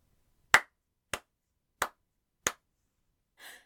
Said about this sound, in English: Crowley, who seemed to be reveling in the awkwardness of the room, grinned and clapped his hands over loudly.